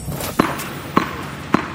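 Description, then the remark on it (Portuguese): A tennis ball bounces three times at an even, unhurried pace, each impact a sharp, hollow thud standing out clearly over a faint steady background hiss. “Este é o som de uma bola de ténis a bater.”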